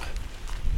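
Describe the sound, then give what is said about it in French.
A few footsteps of a person walking on wet ground beside a tarmac road in steady rain, soft irregular steps over a constant hiss of falling water, with no voices. “Parce que quand même, ça creuse de marcher sous la pluie.”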